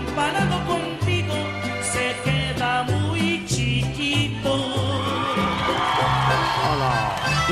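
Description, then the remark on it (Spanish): A loud, continuous standing audience cheers and whoops, with excited shouts rising over steady rhythmic music with a thumping bass line throughout. “aplauden, ¿eh? El público en pie”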